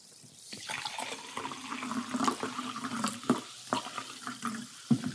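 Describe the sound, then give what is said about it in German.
Liquid being poured into a glass, a steady splashing gurgle with a few clinks and bumps, fairly quiet, lasting several seconds with no talking. “Das ist egal, dann schenke ich mir ein und dann hören wir es da.”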